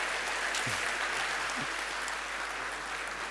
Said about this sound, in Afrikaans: Ek het net vir julle sê hierdie is ons eerste amptelike student wat ons as gemeente gestuur het om te gaan swart en hy het nou klaar gemaak. Uiteindelik, broer, gee vir my 'n hande klap.